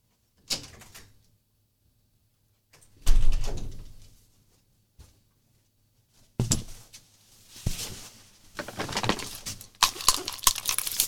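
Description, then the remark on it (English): A door is opened and shut to let a cat out, with a brief click, a solid low thump, then a stretch of scraping, rattling movement and handling noise. No one speaks. “I gotta go let the cat out.”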